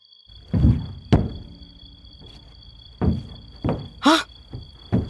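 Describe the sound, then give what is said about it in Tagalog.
A mother bangs on her child's bedroom door to wake them, five or so heavy, irregular thuds, loud and dull, separated by short pauses, and a brief high-pitched cry cuts in near the end. “Buksan mo itong pinto ng kwarto mo!”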